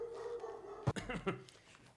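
A dog gives two short barks, a moment apart, sounding somewhat distant and muffled against a low steady background hum.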